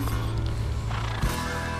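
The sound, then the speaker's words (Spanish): A horse's neigh rings out over a dense, steady music track with a heavy low bass, both fairly loud and sustained through the short stretch, with no voices. “Hay un caballo ahí.”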